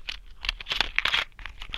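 Small earrings drop and clatter on the floor, a quick run of light, bright ticks and rattles over about two seconds, fairly soft, with no talking.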